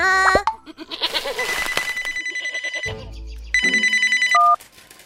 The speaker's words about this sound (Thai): จู่ๆก็มีโทรศัพท์เข้ามาหาลุงทองดี